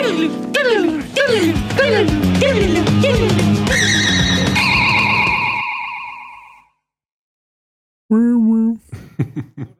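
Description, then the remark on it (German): A short self-made electronic jingle of repeated, bouncy downward pitch swoops over a low bass line, ending on sustained high tones that fade out. After a brief silence, someone starts talking. “War das gerade das Jingle, das du noch gemacht hast?”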